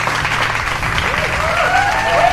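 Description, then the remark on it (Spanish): An audience in the stands applauds a guest on the football show Amanecer de Fútbol: a steady, dense, loud wash of clapping that holds throughout, with a faint crowd murmur and a thin rising whistle-like tone in the final second. “Mira cómo te aplaude la gente, eh, cómo te quiere.”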